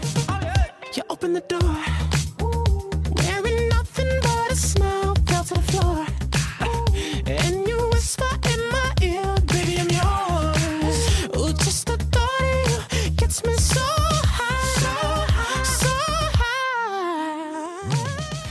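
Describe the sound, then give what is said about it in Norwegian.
A pop song with a male singer's melodic vocal line, singing about how much he wants a girl, over a steady thumping beat and bassline, loud and continuous, with a sweeping synth swell near the end. “han synger om hvor mye han har lyst på en jente, så vi kan høre det”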